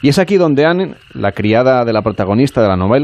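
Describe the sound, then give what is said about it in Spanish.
Frogs croak steadily in the background of a Louisiana swamp among water and cypresses, a faint chorus running beneath a person speaking clearly throughout. “Estamos rodeados de agua, de cipreses, aquí viven ranas, ya lo pueden escuchar de fondo,”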